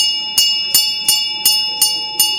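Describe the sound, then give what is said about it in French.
A bell rings in steady repeated strikes, six clear bright hits about every third of a second, each sustained tone ringing on between strikes, fairly loud with no voices, calling people to the stage for an inauguration speech. “Une cloche sonne.”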